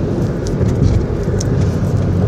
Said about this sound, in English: Uh, anybody complaining about audio quality? To remind you, I'm recording this from my cell phone in the car.